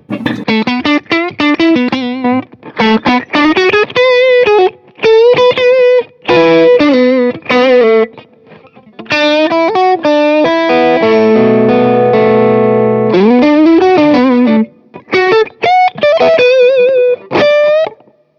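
An overdriven electric guitar played through an early Tube Screamer overdrive pedal plays a string of short melodic phrases and sustained notes, with a thick, saturated edge and a brief chordal passage in the middle. No one speaks.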